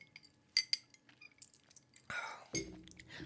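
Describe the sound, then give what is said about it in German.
A drinking glass clinks twice in quick succession, fairly quiet, followed by soft sipping and handling noises as someone drinks from the glass. “Brauchst gar nicht dein Glas heben. Pff, ich trinke trotzdem.”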